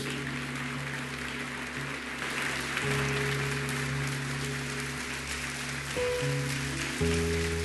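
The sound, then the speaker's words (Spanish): An audience claps steadily throughout as applause to God, a dense, continuous wash of applause, while sustained keyboard chords hold underneath and shift a few times. “Da un aplauso a nuestro Dios.”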